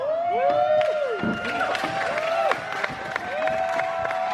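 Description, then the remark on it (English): A large wrestling crowd cheers loudly and continuously, a dense roar of voices with rising and falling shouts and whoops cutting through, reacting to a big moment. “They cheered.”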